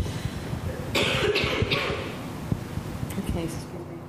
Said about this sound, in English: I'll take that off for a second because I'm going to cough.